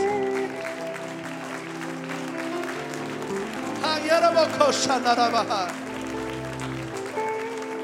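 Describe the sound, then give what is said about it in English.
An audience claps their hands in praise, the applause swelling into a dense burst of clapping midway before easing off, with steady sustained musical tones and some voices underneath throughout. “Oh, I wish we would give him a hand clap of praise.”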